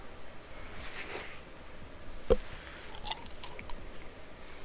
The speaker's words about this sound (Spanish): A ver, yo me estoy comiendo una jugo de arándano congelado.